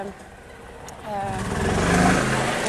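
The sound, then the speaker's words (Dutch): An engine-driven vehicle, like a tractor, drives past in a park, its low motor growl rising in loudness and harmonic whine before holding steady as it passes. “die rijden die wagens rijden altijd voorbij op het park. En dan roept jullie aan tractor, tractor.”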